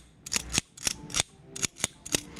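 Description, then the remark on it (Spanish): A corkscrew tapped as percussion in a quick rhythmic pattern, bright metallic clicks in small bursts with a faint ringing tail, clear and alone with no voices. “ya nos da la percusión y de pronto es un abrecorchos, ¿no?”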